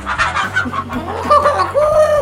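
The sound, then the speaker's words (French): Several people mimic a rooster's crow together after a countdown, their overlapping voices rising and falling in drawn-out, sing-song calls, fairly loud, with two or three crows running into one another. “3, 2, 1. Cocorico Kikiriki”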